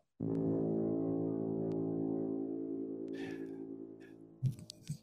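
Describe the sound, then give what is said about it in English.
A single long, loud air horn blast, played as a sound effect, holds a steady brassy tone for about four seconds, tapering slightly before cutting off into a few brief clicks and rustles. “Um, you want the air horns? Okay, here you go.”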